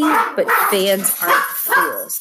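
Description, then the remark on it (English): The speaker's dog barks a few times while a person keeps talking over it, the barks sitting a bit behind the voice. “Please excuse my dog.”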